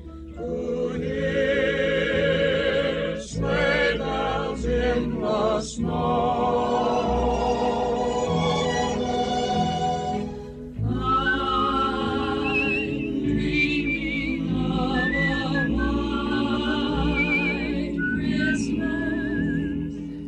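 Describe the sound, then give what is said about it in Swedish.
A steady instrumental radio background music bed plays on its own, with layered melodic lines and sustained harmonies at an even, fairly loud level, briefly dipping twice before carrying on. No one speaks. “Vet ni, på radiospråk vad bakgrundsmusik kallas, det ni hör nu?”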